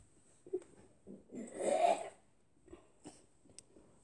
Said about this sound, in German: Er kotzt gerade, während er spricht.